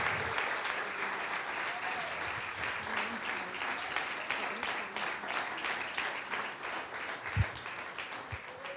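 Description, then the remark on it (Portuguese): An audience applauds God in praise, steadily for several seconds, a dense wash of many hands clapping at a fairly even loudness, with faint voices and a couple of low thumps beneath it. “Aplauda Ele, que Ele é merecedor de toda honra, glória, louvor.”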